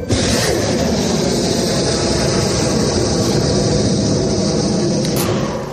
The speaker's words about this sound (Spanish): Así sonaban los misiles que desde los barcos norteamericanos han lanzado contra zonas controladas por los rebeldes hutíes del Yemen, quienes cifran en 300 el número de ataques y bombardeos lanzados hasta ahora por Estados Unidos y el Reino Unido.